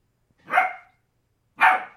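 A dog, turning to look toward a corner, barks twice, about a second apart, each bark loud and sharp with a short ringing tail, with silence in between and no voices.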